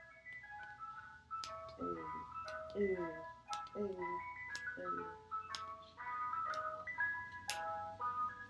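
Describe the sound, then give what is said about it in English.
An ice cream truck jingle plays a bright, repeating tinkly melody with steady stepped notes in summertime, moderately loud, with some background noise and voices underneath. “Oh, nah, the ice cream truck is coming.”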